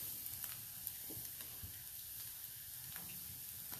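Steady sizzling of chanterelle mushrooms frying and crisping in a pan, a dense crackling hiss with occasional louder pops, continuous for a few seconds with no talking.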